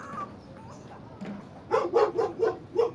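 A dog barks five times in quick, steady succession, sharp, after a stretch of quiet background noise.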